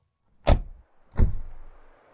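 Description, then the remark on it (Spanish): Two car doors thump shut in quick succession as people get into a car, each a heavy, full-bodied slam with a brief rattling decay, the second slightly softer and longer. No voices are heard. “Salen y suben al auto.”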